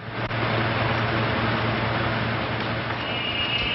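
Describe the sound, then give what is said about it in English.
A car engine rumbles steadily as the car drives away into the U.S., with a broad wash of road noise and a low hum, holding at an even loudness throughout with no voices. “The officer walks off with the tourist, and Duke drives away into the U.S., grinning.”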